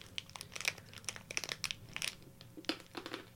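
Someone bites and crunches on a large Lourdes rock, a hard candy sold as a souvenir at Lourdes, producing a quick, irregular series of sharp, crackly crunches that vary in strength, heard alone without any talking.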